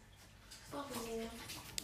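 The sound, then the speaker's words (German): Steady running water hisses as dishes are washed up, with a voice briefly speaking over the rush and a small clink at the very end. “Vicky, spül mal ein bisschen leiser.”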